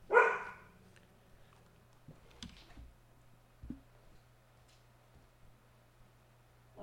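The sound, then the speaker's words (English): A single loud dog bark sounds at the very start, followed by near silence with a few faint clicks and soft knocks in the background. “Let's see if the dog reacts.”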